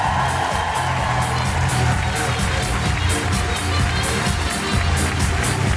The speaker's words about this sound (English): Then you will need to join me in clapping your hands and making incredible woohooing noises